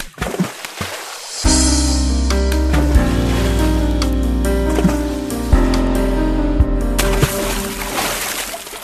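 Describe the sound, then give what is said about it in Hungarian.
A burst of splashing, sloshing water opens, giving way to a loud, sustained tonal swell of layered low notes before watery noise returns at the end. No one speaks. “A csobbanás után jövünk is a részletekkel.”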